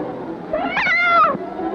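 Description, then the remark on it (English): A frightened cat, arching its back in fright, lets out one drawn-out, strained yowl lasting under a second, its pitch rising and then sliding down. It is fairly loud over a faint background hiss. “Yet a cat arches its back in fright.”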